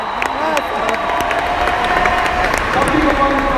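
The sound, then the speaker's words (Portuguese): An audience breaks into loud, steady applause, dense clapping running the whole time, with excited shouts and cheering voices rising over it. “Salve de palmas, meu Deus!”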